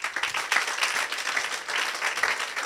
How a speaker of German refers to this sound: Österreich, Deutschland, überall, wo man Deutsch spricht oder wo Leute Deutsch verstehen, schauen sie uns gerade zu und die möchten wir herzlichst begrüßen mit einem großen Applaus. Machen wir das.